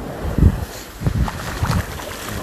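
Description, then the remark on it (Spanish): Gentle waves of a calm sea wash softly onto the beach at Playa Blanca in the afternoon, in three low, rhythmic surges about half a second apart, with a light hiss of wind against the microphone and no voices, while a person walks barefoot along the beach. “Con un mar tranquilo”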